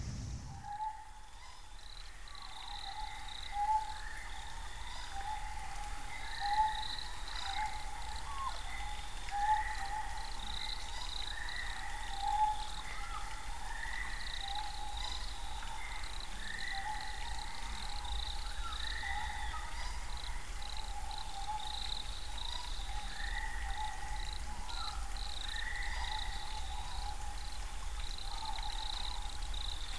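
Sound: night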